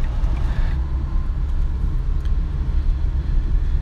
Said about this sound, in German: Jetzt muss ich in den fünften Gang schalten runterschalten. Dieses Auto hat nämlich sechs Gänge, was ich saugeil finde.